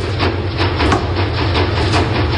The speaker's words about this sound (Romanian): Mașina de spălat, după care perie de wc frecată pe pardoseală și uh, coș de rufe întors cu fundul în sus, care este și el bușit. O chitară și un mic mixer ca să strângă toate sunetele astea. Fiți atenți! Asta e mașina de spălat.